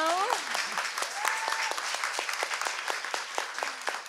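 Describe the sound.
Steady audience applause fills the whole clip, dense rapid clapping with sharp individual claps standing out, and a few brief cheering or voice sounds near the start.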